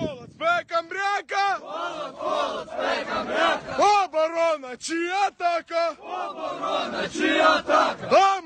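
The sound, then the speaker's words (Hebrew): A group of Ukrainian soldiers chant loudly together in unison, rhythmic sung phrases repeating in a steady chorus with short breaks between lines, energetic, with snow behind them. “סרטון הטוויטר הזה שאנחנו שומעים, ואולי נמשיך לשמוע ברקע, שהתפרסם היום, הרי מורל גבוה בקרב חיילי אוקראינה.”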